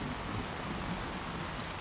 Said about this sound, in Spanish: Y sigue lloviendo, ¿viste? Sí. Qué tormenta. No parece una lluvia de verano.